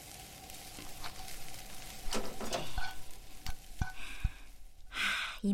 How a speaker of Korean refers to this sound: 웬만하면 파스타는 다 볶아졌고